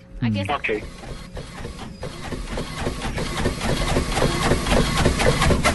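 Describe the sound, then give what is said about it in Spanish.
An office printer runs steadily, its mechanism clattering and whirring in quick, repeated passes that grow slightly louder; a brief voice is heard at the very start. “como una impresora? Bien, bien.”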